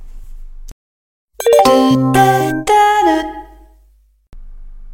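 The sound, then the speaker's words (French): A bright three-note chime rings out, the kind that precedes a train station announcement, clear, with bell-like tones ringing briefly before fading into silence. “Et en plus, vous allez peut-être même être soit heureux, soit énervé en fonction de votre expérience personnelle avec les trains.”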